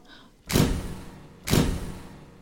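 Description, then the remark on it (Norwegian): A jail cell door being unlocked: two loud, rattling mechanical clunks about a second apart, each trailing off briefly, with no voices. “Så hører hun at døra blir låst opp.”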